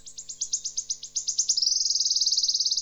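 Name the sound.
wood warbler song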